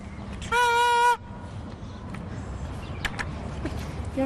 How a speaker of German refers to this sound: Wenn Männer ins Stadion gehen, nehmen sie eine Tröte mit.